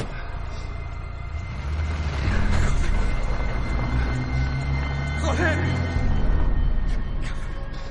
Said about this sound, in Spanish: Se van en el coche.